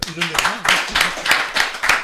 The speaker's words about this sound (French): Je, je vais, je, vais, je demande de l'applaudir.